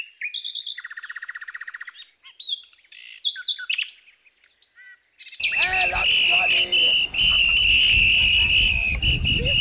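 A nightingale sings varied phrases: a rapid, buzzy high trill, then sharp whistles and chirps, before the song turns louder and denser over a steady rushing background noise.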